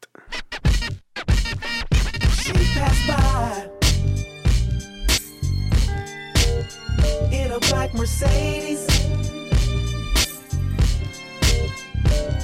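A West Coast hip-hop track plays loud, opening with turntable scratches over a steady, heavy bass beat that continues as a groove with sharp, regular drum hits.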